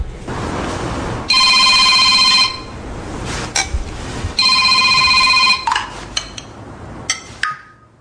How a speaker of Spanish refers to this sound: Y en ese momento entra una llamada que yo creo que va a ser parte de la historia del cine español. Yo creo que no estoy exagerando nada. ¿eh? esa llamada que recibe Eduardo Fernández de su hija.